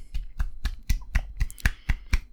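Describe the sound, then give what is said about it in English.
A steady run of about nine sharp claps of two hands slapping together, evenly spaced at a brisk, quick tempo, moderately loud, with no voices. “What's wrong with a cup with that with that with that sweet sound of two hands slapping together?”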